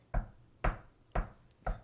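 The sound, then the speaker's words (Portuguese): Four firm knocks on a door, evenly spaced at a steady pace, each a short solid thud that dies away quickly, with no voices in between. “ó, se vocês estiverem aqui de boa, escutar alguém assim na porta, ó.”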